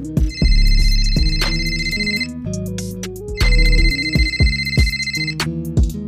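phone ringtone ringing

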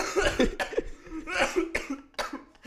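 cough

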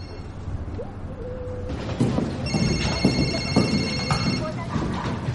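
mobile phone ringing

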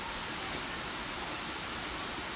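waterfall rushing water

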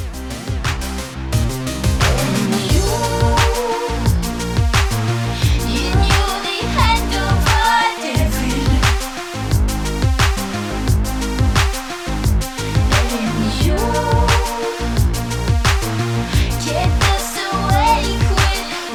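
electronic pop song playing

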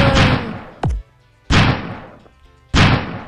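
video game gunfire

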